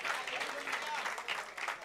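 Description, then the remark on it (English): A church audience claps steadily during a morning service, giving praise to God: a dense wash of overlapping hand claps at an even, moderate loudness with no single beat standing out, and a faint murmur of crowd underneath. “You're not clapping well this morning.”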